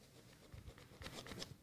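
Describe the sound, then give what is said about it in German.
Soft scratching of a pen on paper, a few quick strokes in a short burst, as someone writes down the number 7. No one speaks. “hat eine 7 aufgeschrieben.”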